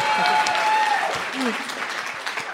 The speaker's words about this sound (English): More applause. Great merch. Please clap.